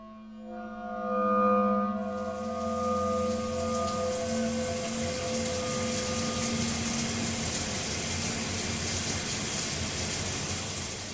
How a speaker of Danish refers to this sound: For Jan er lige nu i bad og ved at gøre sig klar til at arbejde.